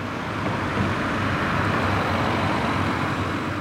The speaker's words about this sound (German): Die Autos kommen hier langsam daher. Am Strassenrand steht ein Leuchtanzeige, der das Tempo anzeigt. Meistens mit grünen Zahlen und einem Daumen gegen oben. Einer ist 27, dann 30, dann 28 Stundenkilometer